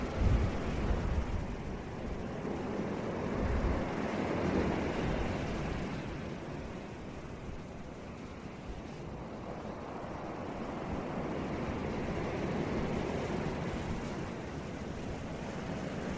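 Steady ocean surf washes and rolls continuously, a broad rushing roar with swells rising and easing, plus some low wind buffeting against the microphone. No voices are heard.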